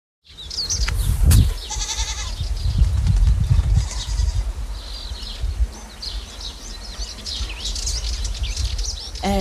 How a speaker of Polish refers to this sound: Mam wrażenie, że wszędzie są tam kozy